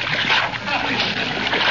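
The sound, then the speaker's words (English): Spaghetti is tossed into a pot of boiling water, splashing and sloshing in a loud, continuous churning and splattering that lasts nearly two seconds. “One side there now, Molly, while I toss in the spaghetti.”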